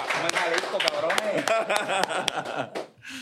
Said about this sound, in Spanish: A ver. Tanto, cabrón aquí hoy, tres aplausos. ¡Aplaudan! ¡Aplausos!